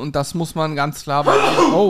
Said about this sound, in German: Gesundheit